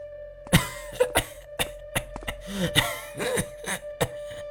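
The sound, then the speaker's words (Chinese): A violent coughing fit that comes on suddenly while walking: a rapid, irregular string of about ten harsh, loud coughs, some trailing into raspy, strained gasps, over a faint steady hum. “走了一阵，八子里却突然剧烈的咳嗽起来，搞得我的心都揪了起来。”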